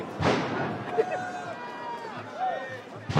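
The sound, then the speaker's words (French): A restless outdoor crowd of protesters on the move, everyone running amid a steady rumble of voices and shouts, with sharp thuds near the beginning and end. “Ça court, tout le monde court, alors on court on bah, on court pas parce que c'est dangereux.”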